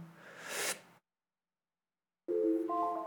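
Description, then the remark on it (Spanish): A five-minute timer sounds with a loud, steady electronic beeping tone that starts abruptly and stacks into higher pitches, following a brief burst of hissy noise and a moment of silence. “Eso que suena es el temporizador que voy a poner cada vez que grabemos el podcast.”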